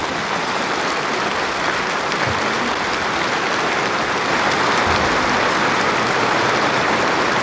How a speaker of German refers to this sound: Der Beifall rauscht auf.